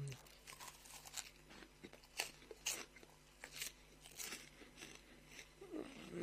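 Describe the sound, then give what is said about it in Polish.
Loud crunching of a crispy snack, with repeated sharp crackly bites and chews in an uneven rhythm over several seconds, plus a steady low hum in the background. “To musi być wkurzające, że tak chrupię przy was, co? Macie ochotę na chrupkę.”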